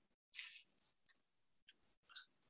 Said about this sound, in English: i'm chewing popcorn